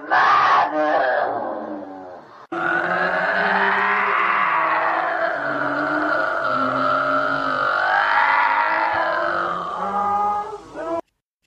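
A woman screams and wails loudly in strained, guttural, animal-like cries coming from her mouth and chest, starting with short bursts, then one long, continuous howling outburst that rises and falls before cutting off.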